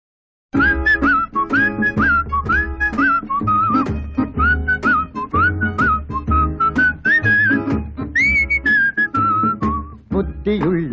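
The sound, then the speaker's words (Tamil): A clear, melodic whistled tune opens a song from the film Annai, played on Arasan FM radio, over a full instrumental backing with rhythmic percussion and bass, playing continuously and fairly loud after a brief silent start. “let's end this show with a beautiful song called”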